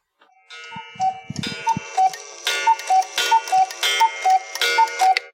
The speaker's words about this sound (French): Le coucou a sonné.